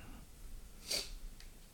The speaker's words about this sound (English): All right. I should have showed the camera what sample one is, but uh, once your brother's ready, we'll give it a little sniffy sniff, see what's up.